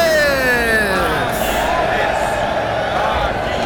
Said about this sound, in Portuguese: Está chegando a hora. A multidão se agita, pois ele vai entrar no estádio.